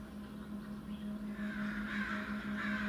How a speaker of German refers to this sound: Schon von weitem hörten sie das Geschrei von Krähen. Als sie zum Waldrand kamen, flatterten sie davon, schwarze Aasvögel, die im hellen Laub verschwanden.